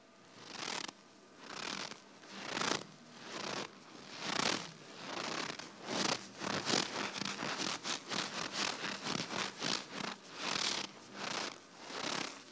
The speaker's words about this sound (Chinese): 比方说，今天我给大家演示一一段吧，就是咱们中部北方这一块的这个雪地的脚步声。这个是我们逆音师专门研究出，用各种材料调整好的，这是我们创作的机缘的东西。大家可以听一下，特别简单。